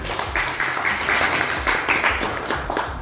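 An audience applauds steadily for about three seconds, a dense, even patter of many hands clapping at a fairly loud, constant level, with faint voices mixed in.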